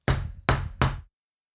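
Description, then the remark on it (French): Three sharp, hard knocks of a cane against the ceiling of a horse-drawn cab in quick succession, each with a brief resonant decay, then silence. No voices are heard. “Il frappa le plafond avec sa canne.”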